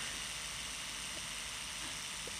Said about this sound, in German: Die Decke kommt runter.